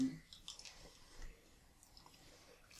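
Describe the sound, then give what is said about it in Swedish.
Quiet wet chewing and squishing sounds of someone chewing a jelly bean candy, with small clicks of the mouth and no speech. “Nej, jag kan typ inte svälja den.”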